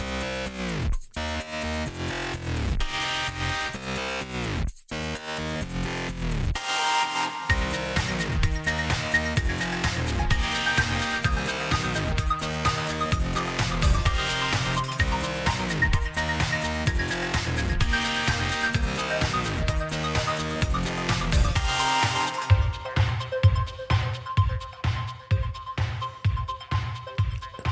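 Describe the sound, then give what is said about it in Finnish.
An upbeat intro music jingle plays on its own with no talking, driven by a steady pulsing bass and bright layered tones, shifting to a sparser, punchier beat near the end. “jutuista tutun intro soi, ainakin meille tuttu ja niille ihanille ihmisille, ketkä on ihmisalastin podcastia kuunnellut jo neljä kautta.”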